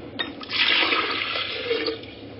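Water pours into a glass jar in a laboratory in a steady rush of splashing that swells quickly and holds for a couple of seconds before easing off, with no voices.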